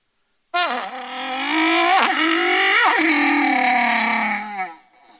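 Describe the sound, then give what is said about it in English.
A voice imitates a car engine, a loud buzzing drone with harmonic layers that dips and rises like gear shifts, lasting about four seconds before trailing off. “So I told him how I learned to be a car when I was in the fifth grade.”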